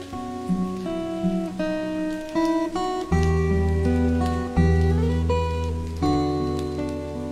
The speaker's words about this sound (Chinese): 当时成都一直都在下雨，吉他声混合着雨声，成了我每天晚上的催眠曲。